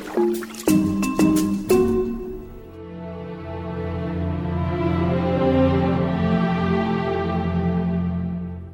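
Water drips a few times in quick, sharp plinks inside a ship's hold, where it is ruining the stored food, then gives way to a steady resonant trickle that swells and holds, echoing.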